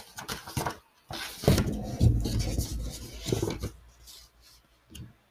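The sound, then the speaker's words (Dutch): A dog named Lady, shut in a kennel, gnaws and tugs at the kennel's wire mesh, making irregular rasping, scraping bursts with faint metallic rattles. The sound is moderately loud, heard alone without any talking. “Lady in een hok, Lady bijt in het gaas.”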